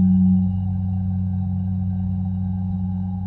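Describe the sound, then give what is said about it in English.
Wind whistles through a hollow human skull lying in a passage between two mountains, a steady, low, resonant drone with a hollow tone. It holds continuously at a fairly even loudness, slightly stronger at the start, with no voices. “And as you are now standing in the middle of these two mountains, looking at this body, you hear the wind pick up through this passage, and you hear as it perfectly whistles through this instrument of a human head.”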